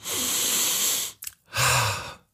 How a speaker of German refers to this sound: atmet tief ein.